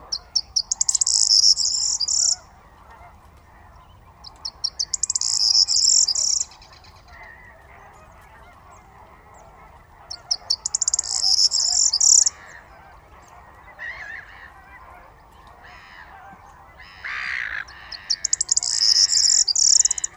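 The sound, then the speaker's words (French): A corn bunting, waking at dawn, sings from a tamarisk in a reed bed in four repeated bursts, each a quick accelerating jangle of high, metallic notes lasting about two seconds, separated by pauses, with faint insect buzz and other bird calls beneath. “Réveil d'un Bruant proyer”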